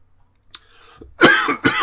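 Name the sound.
coughing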